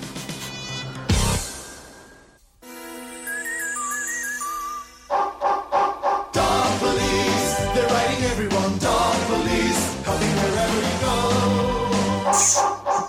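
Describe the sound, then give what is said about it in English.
A loud, busy TV theme song plays throughout, its dense instruments pausing briefly before a run of punchy rhythmic hits. Dog-like barks and yips seem mixed into the music. “No, no, because uh, please click the song that uh, opens the TV show.”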